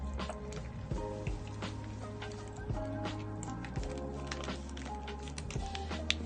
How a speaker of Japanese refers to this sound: ちょっと咀嚼音が、あれだからマイクを離します。